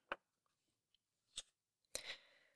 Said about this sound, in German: Jetzt raschelt es nochmal.